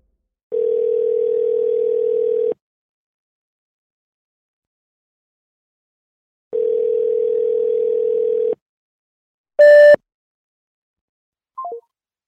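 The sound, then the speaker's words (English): An outgoing phone call rings twice, each long steady ringback tone lasting about two seconds with a pause between, then a sharp electronic burst and a brief falling beep as the call cuts off unanswered. “I need to call Ron.”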